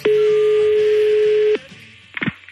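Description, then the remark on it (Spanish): A loud, steady telephone tone at the start of a phone call holds for about a second and a half, then cuts off, followed by a brief pause and a short clatter like a receiver being picked up. “Pues entonces vamos con las llamadas del tractor. Esta fue la primera.”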